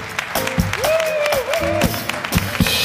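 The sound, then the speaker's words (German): A crowd applauds steadily, dense clapping filling the whole stretch, with a brief whistle-like tone rising and falling over the top midway through. “Und rasant gehen wir über mit dem Beifall direkt zur Jana und Frage der Woche.”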